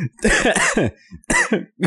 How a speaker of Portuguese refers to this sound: Calma que eu tô tossindo agora.